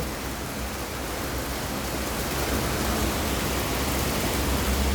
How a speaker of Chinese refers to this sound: 然后它是一个都市里的下雨的声音，在一个社区当中，所以就会有很多呃雨水啊打到屋檐的噼里啪啦的声音哦。